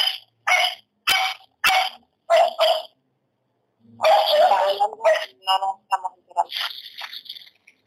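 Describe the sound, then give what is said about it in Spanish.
A dog barks about half a dozen times in quick, sharp bursts, then a longer stretch of voices and jumbled vocal sounds follows. “¡Oye, tu perro!”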